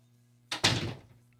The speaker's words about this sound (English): Closing the door.